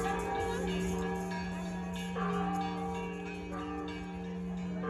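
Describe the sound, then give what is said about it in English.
The bells of the Temple of San Diego in central Guanajuato City, Mexico, ring continuously during the Day of the Dead, a dense, overlapping wash of sustained metallic tones reverberating throughout the city, with new strikes renewing the ringing. “The bells reverberated throughout the city as the dead made their return to reunite with their loved ones.”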